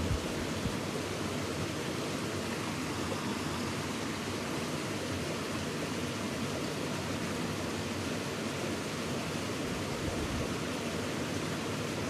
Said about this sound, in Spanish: Y pon tu atención en el fluir. Solo los pensamientos ligados al fluir prevalecen. Imagina este río